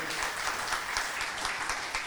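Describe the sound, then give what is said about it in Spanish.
The audience of the church Her Revolution applauds steadily, a dense, even wash of many hands clapping at once, loud and sustained without pause for the whole stretch. “Dale un fuerte aplauso si lo vas a aprovechar como iglesia”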